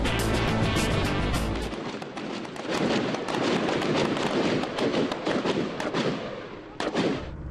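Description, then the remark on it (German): Loud, dense volleys of gunfire from the Bolivian navy during a military exercise on Lake Titicaca, 3800 metres above sea level, crackle almost continuously, sharp reports overlapping in rapid bursts, with deep rumbling booms at the start and again near the end. “Die bolivianische Marine bei einer militärischen Übung.”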